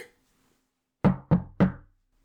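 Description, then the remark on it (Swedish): Three quick, fairly loud knocks on a wooden table, each with a short hollow ring that fades before the next. A brief faint sound precedes them, otherwise quiet. “Nu får vi knacka i bordet för att vi har ju många spelare på väg tillbaka.”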